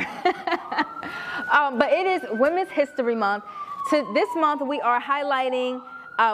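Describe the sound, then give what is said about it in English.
A wailing emergency siren passes outside in Baltimore, its steady tone slowly dropping in pitch as it goes by, audible beneath a person talking and briefly laughing in the foreground. “Yeah, excuse the sirens. Y'all know we in Baltimore.”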